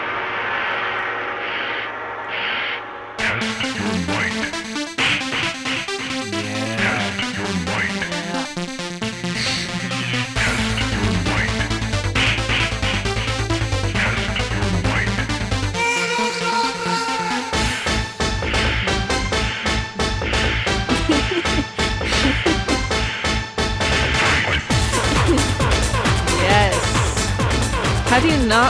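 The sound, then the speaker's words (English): The original 1992 Mortal Kombat fighting-game theme song plays continuously, loud and dense, with a driving percussive beat and bright, layered synth-like tones that build after a brief quieter intro. “um so here's the original theme song.”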